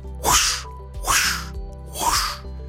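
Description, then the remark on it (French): A voice imitates a swishing whoosh three times in a steady rhythm, each a short breathy rush of air that swells and fades, fairly loud with brief pauses between; a vocal onomatopoeia of air moved by swinging the arms before striking. “Et là vous me direz, mais c'est quoi les whoosh Eh ben c'est tout simplement l'onomatopée du bruit l'air quand on l'agite avec ses bras avant de frapper.”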